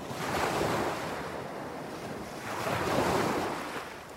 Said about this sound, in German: Einer von uns hatte ein Longboard und mit dem sind wir äh, öfters zum Strand runtergefahren. Der lag nur eine Straße entfernt und sind dann am Strand lang gecruised und haben uns die Wellen angehört.